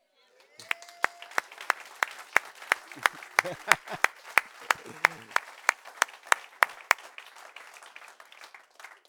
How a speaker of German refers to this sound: Entweder wir klatschen gescheit oder gar nicht. Wollen wir klatschen?